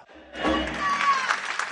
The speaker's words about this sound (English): You'll also hear audiences during these performances yelling out, Narita ya!